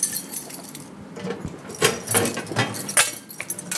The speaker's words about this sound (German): Nicht nur die Beamten klappern mit schweren Schlüsseln, auch Gefangene nesteln an ihrem Bund.